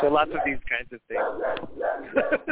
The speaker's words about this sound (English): I'm so sorry about my dog. She was asleep. Hey, stop.